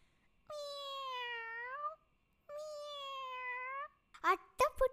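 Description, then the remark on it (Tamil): Five kittens in a box: two long, drawn-out kitten meows, each lasting over a second with a slight pitch slide, separated by a short pause, then a voice briefly begins speaking. “பெட்டியில அஞ்ச பூனைக்குட்டிங்க”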